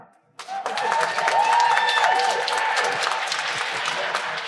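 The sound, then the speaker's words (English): A live audience bursts into sustained cheering and applause to cast a vote after a brief quiet moment, with whoops and shouts rising over dense clapping that holds steady and loud throughout. “I'm going to need to hear uh, you vote for Helstrom”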